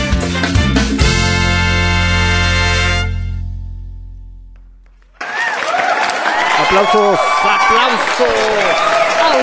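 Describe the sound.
A song's final chord fades away, then a dense burst of applause breaks in abruptly and continues steadily to the end, with cheering voices mixed into the clapping.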